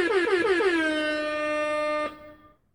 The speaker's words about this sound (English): And listen, this may not be the horn for the Islanders, but we're gonna give him the reggae horn for that one.